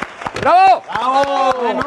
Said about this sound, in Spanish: hoy celebramos el segundo aniversario del Heraldo Radio Villahermosa, que se escucha 104.9 de FM. Aplausos, por favor.